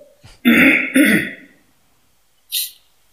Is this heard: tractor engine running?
no